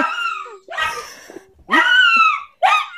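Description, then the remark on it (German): A dog gives several loud vocalizations in a row, short yelping greeting barks mixed with drawn-out, whining howl-like cries along with a siren, with brief pauses between them and no talking. “Jetzt weiß ich nicht, ob er Begrüßungsbellen soll oder mit der Sirene mitjaulen soll.”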